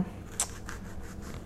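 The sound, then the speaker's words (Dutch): A knife cutting an onion in half: one crisp, sharp cut followed by a few softer, irregular cutting strokes, fairly quiet over a low background hum, with no talking. “Nou, ik doe deze ui voor de helft.”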